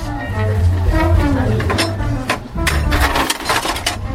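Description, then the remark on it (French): Several bright metallic clinks and light taps as a small piece of metal is set down and shifted for hammering, irregularly spaced, over a low steady background hum. “Bah, là je vais mettre un autre petit bout de, métal parce que là celui-là je vais pas vraiment taper dessus très fort.”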